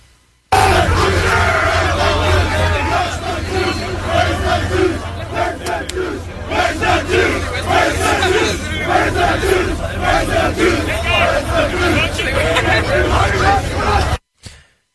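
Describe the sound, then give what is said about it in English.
A large outdoor crowd waving Palestinian flags at the Sydney Opera House chants 'Gas the Jews' and shouts in unison, loud and sustained for about fourteen seconds, with many voices blending into a dense roar and a low rumble of ambient noise underneath. “And then what do they chant after they chanted gas the Jews?”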